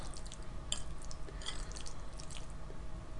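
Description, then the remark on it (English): Someone eating goulash close to the microphone: soft, wet squishing and smacking, with a few brief clicky mouth or utensil sounds scattered over a low steady hum. No one speaks. “So how's your food? Can you hear it?”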